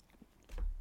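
A single crunchy bite into toast, a sudden burst of crackling noise with a low thump that sustains briefly after a quiet lead-in. No talking.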